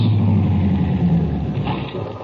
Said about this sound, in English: It is 11 a.m. on a Sunday in August 1949. A blue sedan comes to a stop in front of a ranch house 30 miles from the town of Salt Flats, Texas.